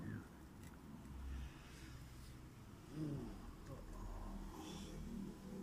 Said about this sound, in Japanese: さあ、走ってますね。おおあれ、車、車運ぶ車、トラックが行きましたね。すごいね。